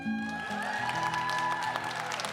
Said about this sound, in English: Oh, th- thank you. Thank you for that, that very spontaneous uh, welcome uh, of, of, of, applause. I'm, I'm so delighted.